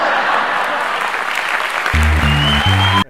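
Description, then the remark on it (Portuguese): An audience applauds in a dense, steady wash of clapping for about three seconds; low sustained musical tones join in over the last second before everything cuts off abruptly. “Muito bem, ah, palmas,”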